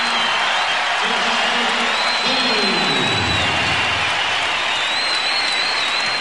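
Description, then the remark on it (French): A huge arena crowd rises to its feet and gives sustained, thunderous applause to a player leaving a match two minutes before the end, a dense wall of clapping with scattered cheers and whistles rising through it, steady and loud for the whole stretch. “Sauf qu'à ce moment-là, toute la salle se lève d'un seul homme, l'applaudit.”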